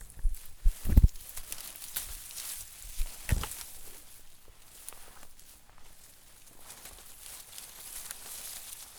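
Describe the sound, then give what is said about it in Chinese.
Weeds being pulled up by hand around tea plants on a natural-farming tea mountain: a few sharp, crunchy tugs and snaps early on, then steady soft rustling and scraping of leaves and soil, with no one speaking. “这个其实是拔草的声音哦。”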